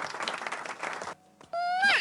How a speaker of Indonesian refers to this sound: oh, 3 menit lagi Tepuk tangan dulu.